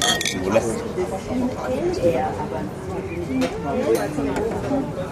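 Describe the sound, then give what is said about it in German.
Busy outdoor crowd murmur in a restaurant garden in the Stadtpark in Vienna, with many overlapping voices, punctuated by several sharp glass clinks scattered throughout as drinks are knocked together. “es ist tatsächlich das erste Mal seit 8. März, dass ich mich selbst in eine öffentliche Gaststätte samt zugehörigem Gastgarten begebe.”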